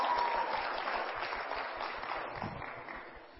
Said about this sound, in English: Give Pastor a good hand clap, huh? Amen.